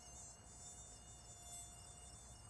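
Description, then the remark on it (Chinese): A steady, high-pitched whine of large, hungry mosquitoes buzzing, continuous and fairly quiet for the whole stretch, with faint low rumble underneath and no voices. “这里面有蚊子， 他们是饿坏了的怪 物，都好大一只啊！”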